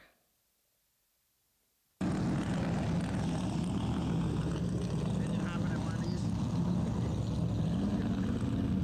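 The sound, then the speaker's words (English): After a brief silence, a loud, dense roar of race car engines bursts in and holds steady, several race cars rumbling as they pull out together from pit row onto the track. “cars are just getting ready to come or making their way from pit row out into the track.”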